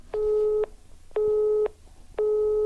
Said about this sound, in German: besetzt.